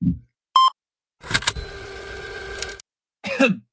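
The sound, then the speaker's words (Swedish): A small, feeble cough, short, comes at the end after a brief electronic beep and a longer whirring, hissing noise. No one speaks. “Den minsta ja. lilla mesiga hostningen du kunde framkalla.”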